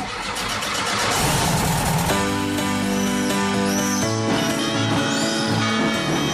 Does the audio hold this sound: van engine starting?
yes